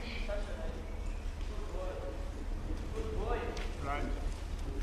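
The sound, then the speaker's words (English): Horse hooves trot in a steady clip-clop rhythm as a boy is taught to present horses for a horse act, across a noisy space, with murmuring voices and background bustle mixed in throughout. “And in fact, this winter, for the first time, his father started to show him how to present horses, and he will be showing one of the horse acts during this coming season.”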